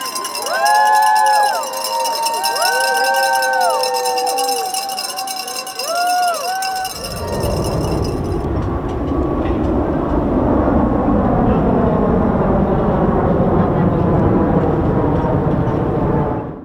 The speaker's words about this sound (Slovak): Takto to znelo na letisku v Los Angeles, keď zhruba 200 nadšených amerických športovcov, trénerov a funkcionárov nastupovalo do lietadla smer Peking.